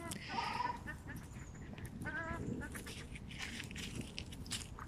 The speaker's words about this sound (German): Also ihr hört, die Rostgänse sind offensichtlich äh, der gleichen Meinung.